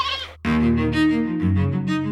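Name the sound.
sheep bleating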